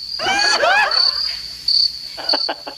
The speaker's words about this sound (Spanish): Que nada más a lo lejos se escucha ya los grillos afuera, en bastante.